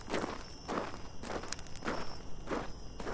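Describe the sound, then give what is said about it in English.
Steady footsteps crunch along outdoors in the dark at an unhurried walking pace, about six steps, of a person carrying a flashlight, over a faint continuous high insect drone suggesting a night setting. “I grabbed my flashlight and I stepped into the dark.”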